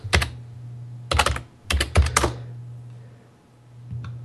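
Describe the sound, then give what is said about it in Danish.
Quick bursts of computer keyboard typing as someone types text into a search, several clusters of sharp key clicks separated by short pauses over a low steady hum, then a lone faint tap near the end. “Øh, jeg prøver da lige at skrive tekst ned.”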